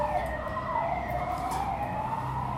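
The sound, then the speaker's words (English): An ambulance siren wails steadily outside, its tone sweeping up and down over a constant low rumble of traffic, heard through open windows. “I apologise for that ambulance in the background.”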